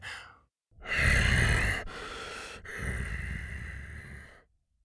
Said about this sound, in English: From this close, he could see all the scars and Tuga's scales. He could hear his raspy, labored breathing.